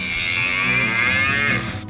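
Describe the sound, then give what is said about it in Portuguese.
A cow-sound toy box is tipped, giving a long, bleating moo that drones steadily for almost two seconds, slightly mechanical and nasal, then cuts off abruptly with a brief rattle at the end. “é provável que a família do inventor da caixa com som de vaca seja rica, seja multimilionária, porque aquilo vendia-se bem, aquilo fascinava a petizada”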